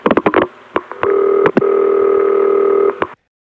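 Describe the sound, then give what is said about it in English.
Telephone switching noises on a CCSA line as a second tandem cuts through: a quick burst of ticks and clunks, then a steady humming ring tone broken by a couple of sharp clicks as the trunk supervises in the middle of the ring, before it cuts off. No voices. “When the second tandem cuts through, there's an immediate tick a clunk, tick, and then the trunk soups in the middle of the ring.”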